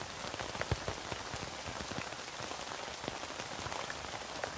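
Steady rain patters on a tent, a dense, continuous hiss of drops with occasional sharper taps standing out, even in loudness throughout.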